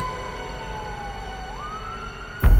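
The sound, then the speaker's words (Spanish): A police car siren wails steadily, its tone sagging slightly and then rising again, with faint road rumble, before a brief louder burst at the end. “Algunos vecinos lograron escucharlos y llamaron a la policía para que los asistieran.”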